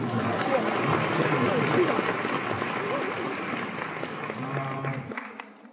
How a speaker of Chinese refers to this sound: 掌声鼓励一下。